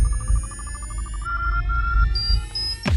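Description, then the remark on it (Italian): A short electronic intro theme jingle of bright, beeping synth tones stepping upward over pulsing low bass, closing with a quick swooshing sweep. No voices, loud. “parti con la sigla e dopo ne riparliamo, dai, dai.”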